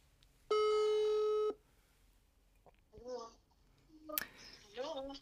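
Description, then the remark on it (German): A single steady electronic ringback tone from an outgoing telephone call placed during a live broadcast sounds loudly for about a second, then stops, followed by a child's voice and other chatter. “Klingelt.”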